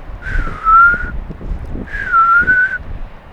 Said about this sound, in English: There's black-bellied plover calling distantly.